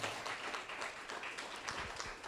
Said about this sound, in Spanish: Le damos un aplauso al Señor, aleluya.